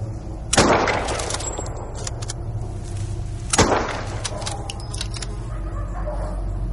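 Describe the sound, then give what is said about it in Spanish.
Two sharp gunshots ring out about three seconds apart, each cracking loudly and trailing off with a brief echo over a steady low outdoor rumble; the shots are fired at dogs running between houses. “Pavel se sobresalta con los disparos.”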